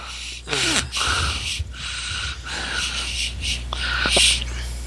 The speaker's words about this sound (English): That's uh, heavy breathing.